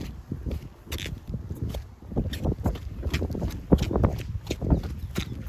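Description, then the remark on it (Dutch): Steady walking footsteps, each step giving a short squelchy squeak from wet shoe soles, repeating in an even rhythm with no talking; the shoes squeak whether walking fast or slowly. “Het, het piept altijd.”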